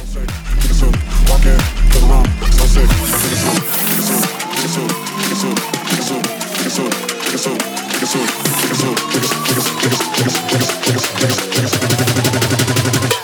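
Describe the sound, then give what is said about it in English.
A loud, fast drum and bass track with rapid, dense drum hits, a deep sub-bass that drops in after a few seconds, and a wobbling, sliding synth line over the beat. “Pushing the tempo up a little bit to some drum and bass.”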